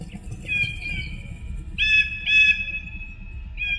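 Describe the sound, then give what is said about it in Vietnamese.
A grey eagle, having landed and folded its wings, raises its head to the sky and gives several long, shrill screeching calls, piercing and held, rising over a low rumbling background; the cries come in drawn-out bursts. “Đại bàng xám đáp xuống ngay bên dưới trụ đồng đen Nó thu xài cánh lại rồi ngước đầu lên bầu trời Kêu lên những âm thanh đầy chói tai gai người”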